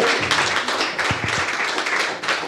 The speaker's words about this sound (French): Alors quelqu'un pour la boisson, c'est Ce monsieur-là, faut le remercier, il faut qu'il se lève, il hein, faut qu'il se lève aussi, on se lève pour lui, et tout le monde l'applaudit, c'est lui pour la boisson.